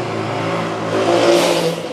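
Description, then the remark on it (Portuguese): Steady street traffic noise with a car engine droning and swelling as a vehicle accelerates, its hum rising around the middle before easing off, no voices present. “Você está ouvindo esses barulhos porque estou ao vivo direto da rua, né?”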